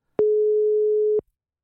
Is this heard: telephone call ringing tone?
yes